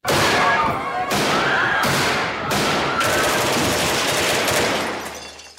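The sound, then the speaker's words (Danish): A gun is loaded, then loud bursts of gunfire rip through a restaurant in the Danish series Når støvet har lagt sig, several sharp blasts landing about a second apart over a dense, roaring, chaotic din of screaming staff and guests. “Og de efterfølgende skud der brager gennem rummet, bliver overdøvet af de hjerteskærende skrig fra personale og gæster.”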